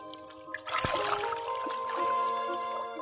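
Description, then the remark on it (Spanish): Water is poured over freshwater river dolphins kept on a bed of wet mud during a rescue operation in the llanos of Venezuela: a steady, splashing stream that starts abruptly with a burst, then keeps trickling and spattering for a few seconds over a faint tonal background hum. “Sabemos que mojándoles constantemente, sabemos que manteniéndoles sobre un lecho de barro húmedo, no corren ningún peligro los delfines de agua dulce.”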